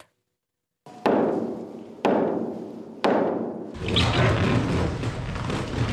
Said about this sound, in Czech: Moment, který mohli lidé naposledy vidět před 12 lety při dostavbě linky A, slavnostní proražení jednoho z tunelů.